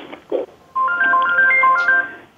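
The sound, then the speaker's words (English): A mobile phone rings with a short electronic ringtone, a quick run of bright beeping tones stepping up and down in pitch, preceded by faint rustling. “Let me turn my phone off.”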